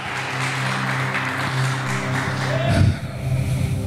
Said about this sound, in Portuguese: Você pode dar um aplauso ao Senhor agora em nome de Jesus? Isso, glória a Deus.